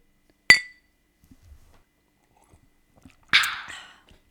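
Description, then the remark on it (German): Two separate glass clinks for a cheers toast, a few seconds apart: first a sharp, bright ring, then a fuller, noisier chime that lingers longer. Nobody is speaking. “Ja, warte, damit das Geräusch warte, trotzdem ich, ich, erklingt. Warte, ich kann es simulieren.”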